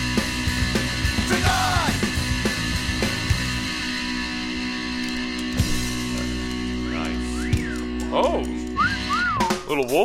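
Sliding, tuneful whistling in a band's song recorded in 1997 rises and falls in short phrases over a dense, steady musical backdrop, the whistled notes fairly loud and clear, growing more prominent toward the end.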